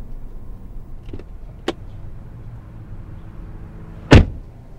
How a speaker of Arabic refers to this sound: ما قلنا بشويش على الباب بشويش على الباب